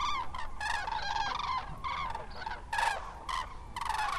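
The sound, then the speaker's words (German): Loud, harmonic bird calls ring out in repeated bursts at sunrise, the trumpeting of common cranes rising in pairs and small groups of three or four and flying overhead, several birds calling in overlapping, uneven succession with no voices present. “Erst ist es nur vereinzelt zu hören, das typische Kranichtrompeten, wie Experten es nennen.”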